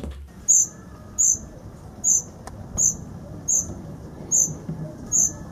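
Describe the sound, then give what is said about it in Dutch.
A cuckoo chick gives high, thin begging calls mimicking reed warbler chicks, short bursts repeating about every 0.7 seconds in a steady rhythm over faint low background rumble. “hij wel kan, dat koekoeksjong, is het geluid nabootsen van die kleine karakieten.”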